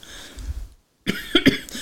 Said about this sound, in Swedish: Och bara för att inte jag hämtade något vatten så kommer jag sitta och hosta här nu.